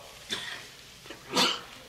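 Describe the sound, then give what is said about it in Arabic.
A short, sharp sneeze bursts out about midway through, loud, preceded by a softer breathy sound like a quick intake of breath. No talking. “يرحمك الله”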